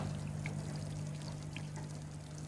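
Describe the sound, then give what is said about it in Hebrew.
Water pours steadily into a container for a couple of seconds, a continuous splashing stream with a low hum in the background and no voices. “אה, תיזהרי. מים?”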